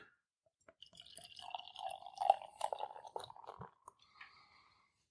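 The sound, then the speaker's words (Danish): Dark, clear, mahogany-chestnut coloured beer is poured into a glass: a steady splashing stream for about two seconds, followed by a few drips, light clinks and a soft fizz as it settles. No one speaks. “Og det ser jo klart og klassisk ud, det du hælder op.”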